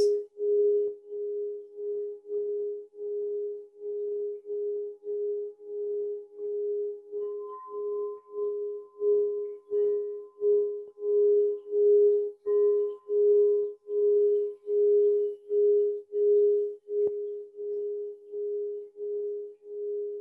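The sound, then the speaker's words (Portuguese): A meditation bell hums in a steady, sustained tone that pulses in a regular, wavering rhythm, with a faint higher overtone drifting in. It rings alone at a moderate level, with no voices. “Vamos ficar uns dois minutinhos apenas ouvindo o som do sino e removendo do seu céu todas essas nuvens.”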